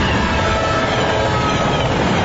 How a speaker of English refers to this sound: If a train is approaching, don't risk your life trying to beat it, because beating the train is a deadly game.